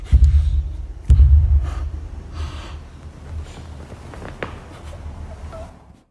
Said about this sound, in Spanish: Después de que se escucha esta voz, alcanzamos a distinguir pasos, pero pasos que no corresponden a una pequeña de 7 años. Realmente a mí me parecen muy pesados, incluso hasta para ser una persona adulta.